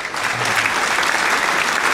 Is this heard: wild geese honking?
no